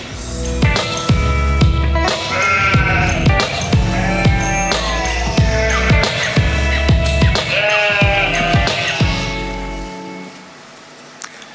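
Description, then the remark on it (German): A flock of sheep bleats continuously, many overlapping calls, loud and layered with no pauses, fading slightly toward the end with no talking. “Die Schafe erkennen den Hirten in erster Linie an den Lockrufen, an der Stimme.”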